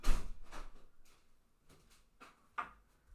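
A door being opened and shut as someone answers the postman at the door, heard as a loud initial clunk followed by several softer knocks and bumps spaced irregularly, with no talking over them.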